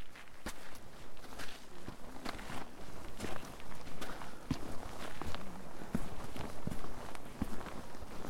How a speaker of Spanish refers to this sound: Es una pisada suave al entrar el zapato en contacto con la nieve, pero inmediatamente se compacta y termina sintiéndose dura, apretada.